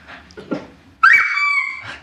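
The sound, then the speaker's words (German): David Alaba lets out a single loud, nasal, sustained honk lasting under a second while attempting to sing, sounding like a car horn, preceded by a few soft breathy sounds. “An der Stelle, an der Stelle kann ich sagen, David Alaba hat jetzt gerade versucht zu singen, es hörte sich aber so an wie eine Hupe.”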